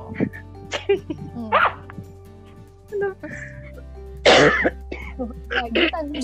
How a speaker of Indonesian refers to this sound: siapa tuh yang batuk?